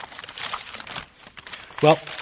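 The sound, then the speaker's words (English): A crinkly plastic bag holding all the pieces of an alarm clock being rummaged through, with bursts of rustling and crackling that rise and fall unevenly, ending in a brief louder rattle. “See, in this bag, I have placed all of the pieces to an alarm clock.”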